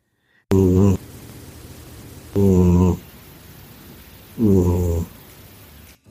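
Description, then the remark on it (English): A cat curled up in a person's lap snoring, three raspy, buzzing snores at a slow, steady rhythm about two seconds apart, with a soft breathy hiss filling the gaps between them. “who's been curled up in my lap this entire time and who is obviously thoroughly unimpressed with the story I just told, snoring his little heart out.”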